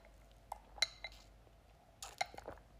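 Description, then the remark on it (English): Someone sipping a smoothie: a few bright glassy clinks, then a short cluster of soft, noisy slurping sounds, all fairly quiet with no talking. “i'm gonna take a sip of my smoothie”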